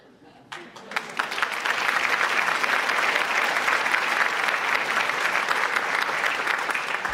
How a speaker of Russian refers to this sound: Ну, собственно, все. Жду ваших аплодисментов.